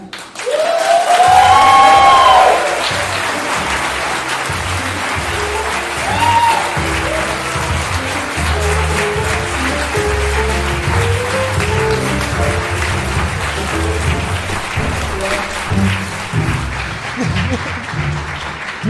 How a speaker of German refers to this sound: Liebe Leute, es geht los und zwar, jetzt kommen gleich die zwei wichtigsten Personen des Abends. Herzlich willkommen mit einem ganz großen Applaus